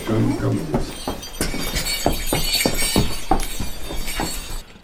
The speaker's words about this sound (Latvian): Reiz kā jau skan zvārgulīši.